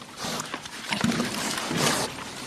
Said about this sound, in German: Die Schweine tun, was sie sollen. Fressen und wachsen. Vor allem fressen. Mit gesundem Appetit.